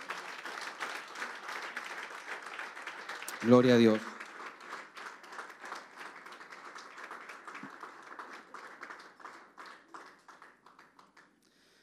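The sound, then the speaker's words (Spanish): An audience applauds steadily in praise of the Lord, a dense wash of clapping that thins into scattered, slower claps toward the end. A brief voice and a loud exclamation break in near the middle. “Puede tributar un fuerte aplauso de alabanza al Señor.”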